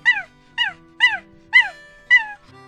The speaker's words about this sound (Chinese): 糟了，阿黄在外面要冻坏啦！门外传来了狗叫声。